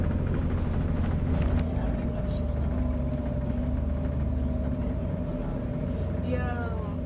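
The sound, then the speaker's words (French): Steady, loud low rumble of a 50-seat shuttle bus engine heard from inside the cabin, travelling through Clermont-Ferrand, France, from Place du 1er Mai toward the Panoramique des Dômes station at the Puy de Dôme, a constant droning hum throughout, with faint indistinct voices in the background. “Ça y est, le bus qui nous conduit donc euh, à la gare du panoramique des Dômes est parti de la place du 1er mai.”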